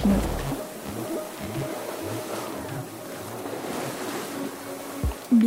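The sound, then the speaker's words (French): Waves and spray rush steadily around a heeling sailboat moving fast at about 6.5 knots in strong wind and fine rain, a continuous loud wash of water with low rumbling and gusts of wind against the microphone, with no voices. “Je sens les fines gouttelettes de pluie sur mon visage et les embruns des vagues.”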